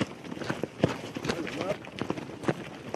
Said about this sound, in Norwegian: Israelske soldater marsjerer.